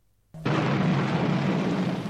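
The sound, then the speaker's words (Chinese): After a brief moment of silence, a sudden, loud clap of thunder bursts in and rolls into a steady, roaring rumble that holds for nearly two seconds, with no voices. It is thunder in a storm with heavy rain and lightning. “闪电仿佛一条长长的毒蛇，在黑暗的苍穹中扭来扭去，阵阵雷声震耳欲聋，回声绵绵不绝。”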